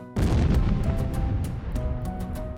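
A deafening explosion of a car erupts suddenly, making the ground shake, its heavy roar rumbling on for a couple of seconds with crackling bursts scattered through the tail.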